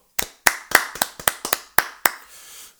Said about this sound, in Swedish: Och dagens, dagens applåd då? Dagens applåd.